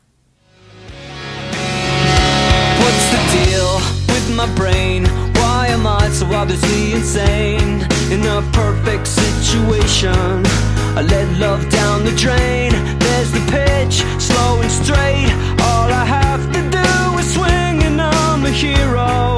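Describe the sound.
A 2005 song by an American alternative rock band fades in over a couple of seconds, then plays loud and steady with driving drums, distorted guitars and bass under a sung lead vocal throughout.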